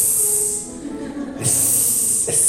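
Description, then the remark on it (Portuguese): A voice mimics a snake with a long, sharp "sssss" hiss, briefly breaking before a second drawn-out hiss; steady and fairly loud, with no other sounds. “Então disse a serpente à mulher: É certo, você pode colocar um S”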